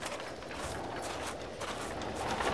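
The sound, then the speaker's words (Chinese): A horse-drawn carriage approaches along a street, its horse hooves clip-clopping in a steady rhythm over a continuous rumbling wash of carriage noise, growing slightly louder toward the end, with no voices. “让一让，让一让，马车来了！”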